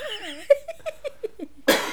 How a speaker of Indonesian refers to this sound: tuh aku masih batuk tuh kan